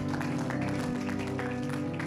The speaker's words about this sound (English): Can we just give God one big round of applause and say, Thank you, Lord. We bless you. Thank you, God.